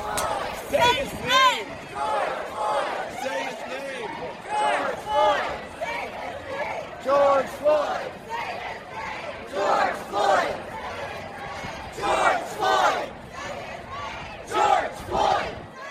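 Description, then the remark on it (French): A large crowd at a protest against police violence in the United States chants the slogan "Say his name, George Floyd" in unison, voices rising in loud, rhythmic bursts every second or two, repeated over and over. “Dites son nom, George Floyd, c'est un slogan qui résonne partout aux États-Unis à l'heure où nous parlons.”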